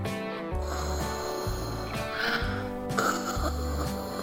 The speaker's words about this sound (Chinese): 树底矮人爬着爬着，听见了响亮的打呼声。